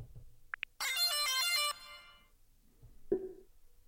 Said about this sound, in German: Durch einmaliges Drücken auf das Touchpad und Halten wird die Gerätehupe aktiviert.